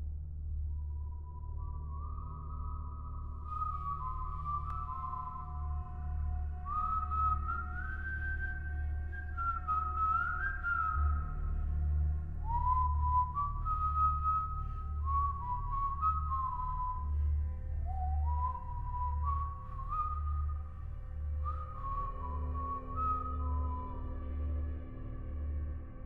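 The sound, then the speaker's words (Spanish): An eerie, wavering whistle heard at exactly 3:03 drifts through a melody of rising and falling notes, steady and moderately loud over a low continuous hum, with no one speaking. “Exactamente a las 3 y 3 escuchamos el silbido.”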